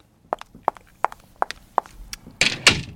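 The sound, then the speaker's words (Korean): Crisp clicks of women's shoes with slightly raised heels walking at a steady pace, about half a dozen steps, then the walker goes in and a door slams shut with a loud, heavy bang to finish. “어 구두, 여자 구두 소리 같죠? 네. 조금 굽이 있는, 네. 걸어가다가 문을 쾅 닫고 들어갔습니다.”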